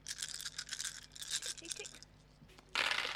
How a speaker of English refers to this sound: I love that dice Foley noise. That was some dice ASMR right there.